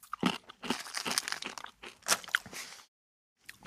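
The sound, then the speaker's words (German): Loud crunching as an onion-herb flavoured cracker made from insects is bitten and chewed, a dense run of brittle cracks for about two and a half seconds, a pause, then one more short crunch. “Jetzt steht da aber interessanterweise noch nicht mal drauf, was für Insekten, aber ich beiß mal rein.”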